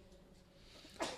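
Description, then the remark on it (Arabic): A single short, soft sneeze from someone in the audience bursts out near the end, after a stretch of quiet background with no one talking. “يرحمك الله”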